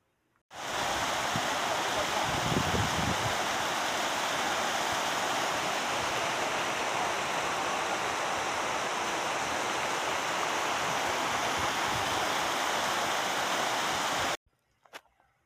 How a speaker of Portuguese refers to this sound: Relaxou? Você viu que som gostoso? Isso foi uma das primeiras cascatas que eu peguei, né? Cachoeira, cachoeira eu peguei algumas, mas eu não consegui, não lembro se eu gravei. Mas eu gravei essa que é uma delícia, né?